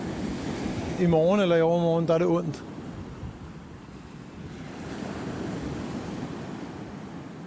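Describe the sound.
North Sea surf rolls onto a shore on a sunny day in a steady, broad roar that swells and eases, with wind noise throughout; a man speaks briefly near the start, then the waves carry on alone.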